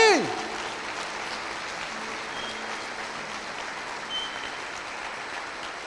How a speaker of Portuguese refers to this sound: Você entende o que eu estou falando? Se você entende, dê um forte aplauso a Jesus, não é para mim.